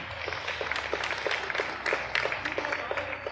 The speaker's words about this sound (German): Jetzt klatschen sie schon wieder. Warte. Oh.